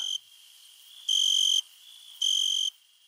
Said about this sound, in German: Zum Beispiel das Weinhähnchen. Sein Zirpen, das in warmen Sommernächten in Österreich zu hören ist, wird auch als Gesang bezeichnet. Der Vorgang, wie das Tier die Laute hervorbringt, als Stridulieren.